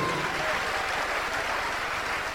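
A crowd claps in a sustained, dense round of applause for the suffering God, steady and fairly loud throughout with no voices standing out.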